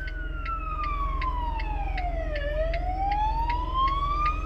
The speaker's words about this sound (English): There is police lights and sirens going one way and police lights and sirens going the other way. Um, whoa. They just stopped just there.